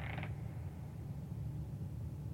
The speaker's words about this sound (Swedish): Mina tankar avbröts av ett svagt knarrande ljud bakom mig. Jag vände mig snabbt om och såg en dörr jag var säker på att jag inte hade öppnat. Den stod nu på glänt.